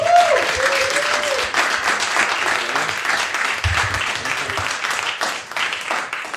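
A crowd applauds steadily for several seconds, a dense, loud wash of many hands clapping, with a brief whistle-like tone at the start and faint voices underneath.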